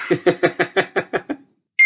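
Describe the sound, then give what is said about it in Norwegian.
A computer notification sound: a quick run of about eight electronic blips in steady rhythm, then a brief silence before a clear, sustained beep starts. No one speaks. “Må skru av lyden. Ja, men Jeg har skrudd av på telefonen, men jeg kommer inn på PC nå.”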